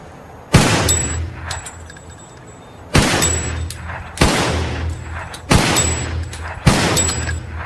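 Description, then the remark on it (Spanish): Five sharp gunshots ring out one at a time at irregular intervals during target practice at a cardboard target, each loud with a ringing decay and a low rumble trailing after it. “Tres tiros en el cartón, tía.”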